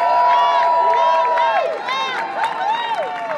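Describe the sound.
An audience applauds and cheers, with steady clapping under a wash of crowd voices and whoops, loud and sustained for the whole stretch.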